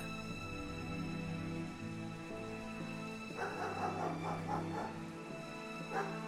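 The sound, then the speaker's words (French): Louise's two dogs, Rigolo and Fou, sheltering under a caravan, bark and whimper excitedly in greeting in a cluster of quick, yipping bursts during the second half, with one more yelp near the end, over a steady low tonal hum. No one speaks. “Les deux chiens de Louise étaient abrités sous la roulotte.”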